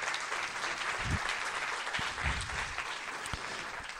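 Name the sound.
audience round of applause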